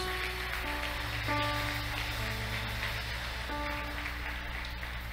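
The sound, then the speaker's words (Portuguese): A church audience applauds steadily during a service, a dense wash of clapping that holds at the same level throughout, while sustained keyboard chords play softly underneath. “Pode aplaudir Jesus.”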